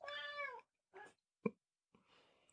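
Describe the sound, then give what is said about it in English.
A female cat lets out one loud, drawn-out meow, followed by a few shorter, softer noises and a sharp thump before things fade into quiet rustling. “The Yule Cat is here. She's and mad.”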